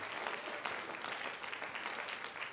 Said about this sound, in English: Let's give the Lord a hand clap of praise for being such a great God. Hallelujah.